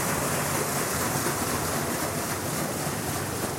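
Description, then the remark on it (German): Water bubbles and gurgles in a canal in a steady, rushing wash of sound that holds at an even loudness for a few seconds, with no voices. “Ja, das ist ja blubberig und glucksig hier.”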